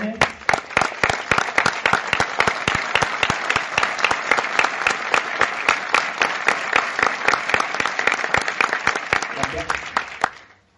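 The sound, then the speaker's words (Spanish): An audience breaks into steady, fairly loud applause, many hands clapping densely for about ten seconds before stopping abruptly. “Dije 48 y aplaudiendo, así que la uso para el seminario, ¿eh?”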